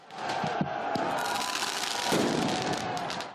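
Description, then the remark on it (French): Firework mortars fired at police by Black Blocs during a protest against pension reform in Paris go off in a few sharp, thudding pops over a loud, constant roar of crowd noise and hiss, with shouting voices mixed into the din. “Mobilier urbain détruit, magasins vandalisés ou encore cette séquence de jets de mortier sur les forces de l'ordre.”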